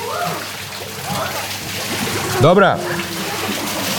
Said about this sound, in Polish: O, popatrzcie. I już zaczyna woda płynąć tutaj.